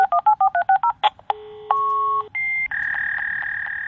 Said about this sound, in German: Und dann macht so, und das sind die eigentlichen Einsen und Nullen im Modemverfahren. Hören wir nochmal rein.